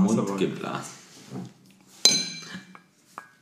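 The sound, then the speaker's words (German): Large, mouth-blown drinking glasses, shaped to look as if standing on a small ice cube, clink together once with a bright, ringing tone right after a stretch of talk, followed by a couple of softer glassy taps. “Wir haben ein Glas, das im Endeffekt auf einem Eiswürfel steht, optisch.”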